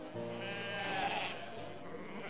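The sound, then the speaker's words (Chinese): A sheep, one of several caged at a mutton butcher's stall in a busy market, bleats in one long, wavering cry with a strong harmonic, nasal tone, steady and fairly loud for about two seconds, with no one talking. “他知道那是喜羊羊的声音，在斜对着他们的菜摊的地方”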